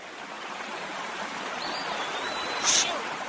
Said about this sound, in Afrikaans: Kyk dit vinnig vloei die water.